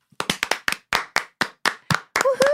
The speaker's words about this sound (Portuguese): Palmas.